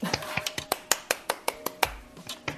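A person claps hands in a quick, steady rhythm, about a dozen crisp, bright slaps roughly five per second, with a short pause near the end before a few more claps.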